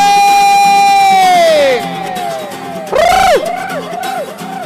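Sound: crowd applause and cheering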